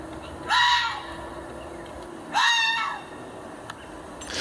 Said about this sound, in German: Und tatsächlich, ich habe ein Live-Video von einem Fuchs gefunden. Und so, liebe Hörer, die es vielleicht auch nicht wussten, so wie ich, so klingt der Fuchs.